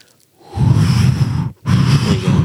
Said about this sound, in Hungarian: Fúj a, szél. Fúj a szél. Ez a szél a marsról, és akkor ilyen teljes eufóriában közlik ezt, a, ezt az információt, és a másik zaj, amit lehet hallani ezen a felvételen, az ennek a gépnek a haladása